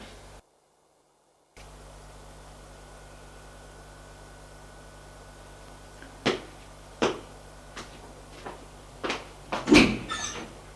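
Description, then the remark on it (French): A man opens a door: a run of sharp clicks and knocks, growing busier toward the end, over a steady background hiss. No one speaks. “L'homme traverse la pièce ouvre une autre porte.”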